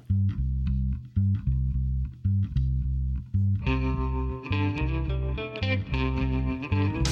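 A rock cover band starts a song: a steady, repeating bass riff plays alone at first, then bright, distorted electric guitar chords join partway through. The music is loud, with no vocals yet.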